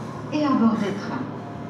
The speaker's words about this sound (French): On va attendre que la dame de la SNCF arrête de parler, non Elle te respecte pas. Franchement, elle te respecte pas.